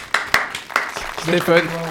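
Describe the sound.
A few sharp, scattered hand claps ring out in the first second as a studio audience applauds a participant who got his driving licence live on the show, followed by a voice talking over a thinning patter of clapping.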